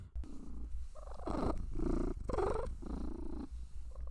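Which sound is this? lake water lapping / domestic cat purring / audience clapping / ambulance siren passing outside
domestic cat purring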